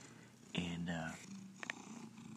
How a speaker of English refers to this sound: This cat, this guy, Marky, big orange cat, real life Garfield cat, he just starts purring. If you look at him or if you mention his name, this guy, he's like the Chris Farley of cats.